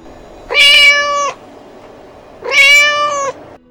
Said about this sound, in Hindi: अचानक उसको उस गेट के बाहर से एक बिल्ली की आवाज़ सुनाई दी और वो उस आवाज़ को सुनकर समझ ही रहा था कि अचानक वो बिल्ली उसके लोहे के गेट के सामने आकर खड़ी हो गई